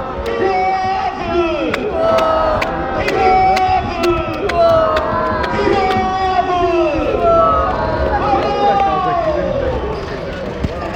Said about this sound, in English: Stadium announcer's doing his best to uh, get the crowd going, but like I said, with speakers from the 1970s, you're not going to get very far.